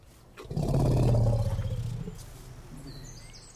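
A straight-tusked forest elephant in a Central European forest lets out a single deep, loud rumbling call lasting over a second, then fading, with faint outdoor ambience and a few faint bird chirps afterward.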